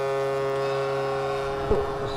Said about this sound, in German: Als die letzten Baggerschaufeln ins Wasser klatschen und den Deichschluss vollenden, wird das zum Volksfest. Schiffssirenen tröten, Menschen applaudieren.